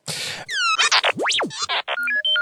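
A rapid, chattering burst of electronic beeps, warbles and sweeping whistles from the Star Wars droid R2, one rising and falling sharply, followed by stepped two-tone bleeps, loud with no talking.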